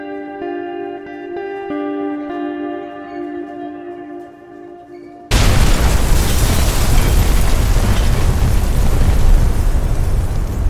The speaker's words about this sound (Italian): sono rimaste vittime di un'esplosione nel centro di ricerca in cui lavoravano durante la guerra di transizione nel febbraio del 2038.